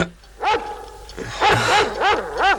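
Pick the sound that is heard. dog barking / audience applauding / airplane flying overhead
dog barking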